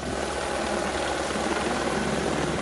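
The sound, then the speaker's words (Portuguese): A fire brigade rescue helicopter's rotor chops steadily in a rapid low thumping beneath a constant broad engine roar, holding even throughout, with no voices, during the rescue of a woman swept away by floodwater in Greater Florianópolis, Brazil. “Ela só sobreviveu porque se segurou em um ponto de ônibus até que fosse resgatada pelos bombeiros em um helicóptero.”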